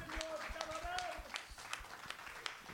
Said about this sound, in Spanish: un fuerte aplauso al Señor en esta mañana.